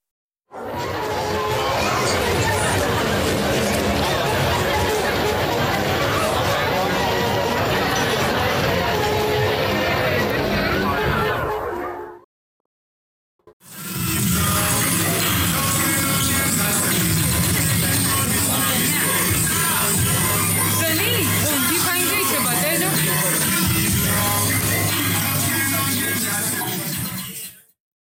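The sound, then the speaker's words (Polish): Manhattan street ambience recorded in 2019: a dense, steady wash of crowd chatter and traffic rumble, heard in two loud stretches split by a brief silence around the middle. “Ostatnie dźwięki pochodzą z Manhattanu i wykonane zostały w 2019 roku.”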